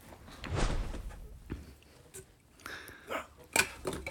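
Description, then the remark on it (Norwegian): A door is opened and someone steps inside, with a series of thumps, rattles and scrapes, ending in a sharper knock as it swings shut. No one speaks. It is Jonas Gahr Støre coming in through the door at his home. “Start med at Jonas kommer inn døra.”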